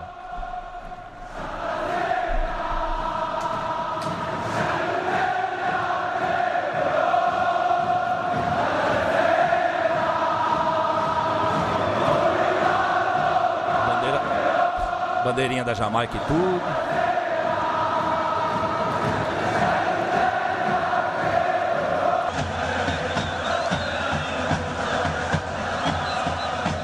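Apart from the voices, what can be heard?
football supporters chanting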